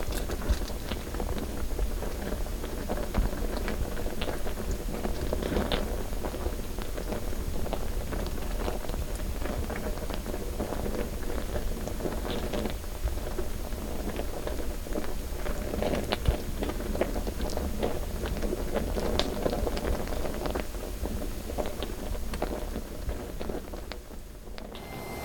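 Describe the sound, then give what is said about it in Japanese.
Sake mash fermenting as yeast consumes koji and rice, giving off alcohol and carbon dioxide: a dense steady crackle of countless tiny carbon dioxide bubbles popping and fizzing, recorded in a quiet sake brewery at night, continuous throughout with no voices. “発酵といいますのはあの酵母菌という微生物が投入した麹やお米を食べて体の底にアルコールと炭酸ガスを出すという活動を総じて発酵と言っていますその出したアルコール濃度が高くなってきてお酒になりますしその炭酸ガスが噴出してきてそれが発酵の音になります”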